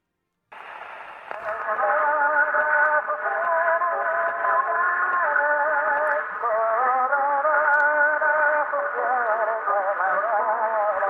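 An 1899 gramophone record of the Argentine anthem sung by an Italian tenor, thin and band-limited with a boxy, radio-like tone, the sustained voice gliding between held notes for about ten seconds.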